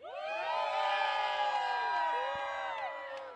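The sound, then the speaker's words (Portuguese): A large festival crowd waiting in a packed queue cheers and shouts together, many overlapping voices rising in a sustained, loud roar with whoops, filling the space for a few seconds without pause. “Olha, cadê a galera? Cadê a galera?”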